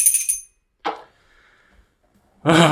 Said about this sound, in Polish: To co, mnie pozostaje nic innego, jak e, chwycić za dzwonek. E, tak, dzwoń, tak, i kolego, dzwoń.